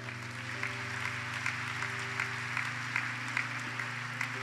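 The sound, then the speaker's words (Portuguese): An audience claps steadily in a dense, continuous wash of applause for Jesus, with a sustained low hum of music or organ tones underneath and no talking. “Vamos dar uma salva de palmas a Jesus, vai.”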